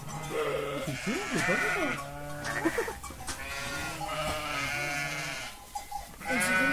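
Young goats (kids) bleat repeatedly, several overlapping wavering cries filling the space, with faint human voices mixed in beneath the animals.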